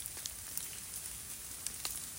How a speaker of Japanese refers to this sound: まあ雨だれがあ水面に落ちてますね